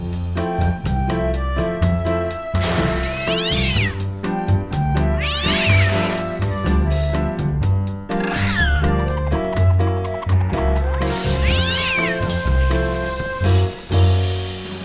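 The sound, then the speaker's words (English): A female cat meows repeatedly, about four drawn-out, wavering cries spaced a few seconds apart, loud over a steady background of music with a pulsing low beat. “we need to talk about cat”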